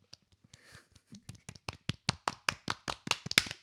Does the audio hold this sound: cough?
no